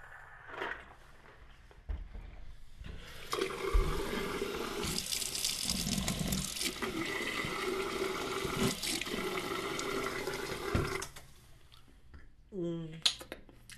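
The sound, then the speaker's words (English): Water runs from a hotel sink tap into a cup in a steady rushing stream for several seconds, with a few small clinks before it and a brief voice sound right after it stops. “I haven't tried the water here in the hotel yet. Uh, I might want to try. Let's go ahead and try.”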